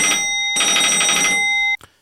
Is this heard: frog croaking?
no